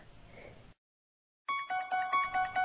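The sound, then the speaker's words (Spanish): A cell phone ringtone plays an eerie horror-movie theme in quick, repeating electronic notes, starting loud after a short hiss and a moment of silence. “Su celular estaba llamando. Tenía el tono de la música de la película Halloween.”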